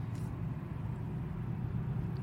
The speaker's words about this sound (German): Straße auf jeden Fall fährt sich hier sehr gut. Also ich fahre das Auto nicht, aber es wirkt so.